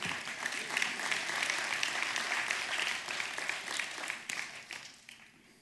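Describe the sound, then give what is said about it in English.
An audience at a sermon breaks into steady, dense applause for Jesus, many hands clapping at once for several seconds before it starts to thin out toward the end. “You can clap for Jesus.”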